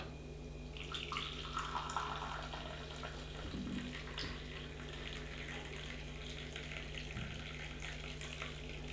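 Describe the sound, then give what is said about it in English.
Lightly roasted brewed coffee, made from 20 grams of coffee and 300 millilitres of water just off the boil, pours from a Solo brewer once the brew time is up, in a steady, splashy stream, fairly loud, running continuously for several seconds with no one talking. “I am just going to pour this now because the time is up.”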